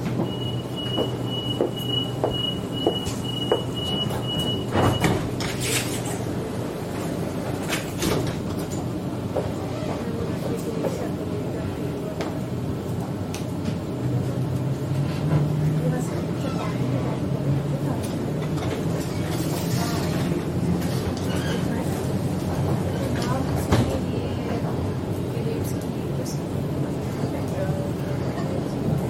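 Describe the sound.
Interior of a moving commuter train in Sydney, Australia, running between Newtown and Redfern stations: a steady low rumble with rhythmic clattering and occasional clicks and jolts, plus a brief high tone early on, while muffled voices murmur in the background.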